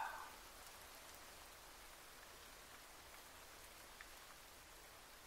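Steady rain falls throughout, a soft continuous hiss of drops with faint scattered patters, fairly quiet and even, with no voices.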